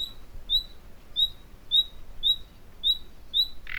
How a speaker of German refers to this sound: Wer den Nationalpark Neusiedlersee Seewinkel besucht, hat zwischen Mitte April und Mitte Mai gute Chancen, den Gesang der Nachtigall entlang von Baum- und Gebüschreihen zumindest zu hören.